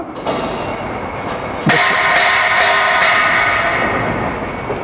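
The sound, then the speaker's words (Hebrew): A bell rings with a sharp metallic strike, then after a pause is struck four more times in quick succession, its bright tones ringing on and slowly fading. No one speaks. “זה היה צלצול להדגיש את העובדה הזאת, כן?”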